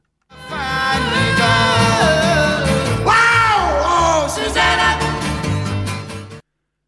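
A lively banjo-driven song plays throughout, and about halfway in a single loud scream rises and falls over the music just before the arrangement shifts.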